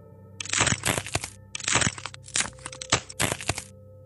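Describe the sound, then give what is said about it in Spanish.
Several crackling door creaks come in uneven bursts, loud, with short pauses between the groaning strains of the wood. No one speaks. “Los crujidos de las puertas sonaron de nuevo.”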